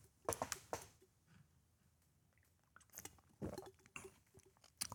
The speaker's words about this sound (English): Uh, excuse me, just a minute. I have to take a little drink of water. Excuse me.